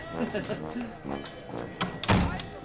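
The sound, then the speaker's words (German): A door opens and bangs shut with a solid thunk near the end as several people go out through it, while voices murmur in the background. “Ida und Karlchen, Wilhelm und der Buchhändler gingen vor die Tür.”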